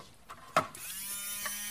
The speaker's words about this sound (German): Sieht aus wie ein Rasierer. Ja, und hört sich auch so. Ja. Genau, das ist ein Öffner für eine, für eine Flasche, also eine Sprudelflasche, wo einem ja auch oft die Kraft fehlt